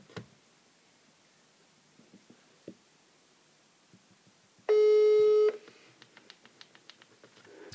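A single loud, steady phone tone lasting under a second, followed by a quick run of soft clicks and ticks as a caller redials after a bad connection; scattered faint clicks come before it, with no voices.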